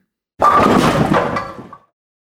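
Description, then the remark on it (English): A bowling ball slams into pins with a loud, sudden crash, followed by a brief clattering rattle of tumbling pins that fades out after about a second and a half. “Bowling pins!”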